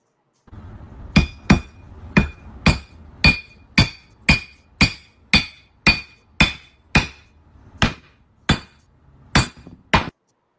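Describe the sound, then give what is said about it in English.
A hammer strikes a glass Crown Royal whiskey bottle over and over, about fourteen loud, evenly spaced blows, each a sharp crack with a bright glassy ring that fades quickly. Nothing breaks. “I want to know how the fuck this thing is not is that, shattering.”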